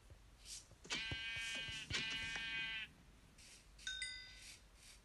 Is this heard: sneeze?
no